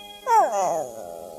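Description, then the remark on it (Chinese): A dog, Pluto, lets out a short, wavering whimpering howl that rises and falls in pitch, tapering off into a soft, quieter whine with no talking over it. “你知道，你还是我最好的狗，对吧？”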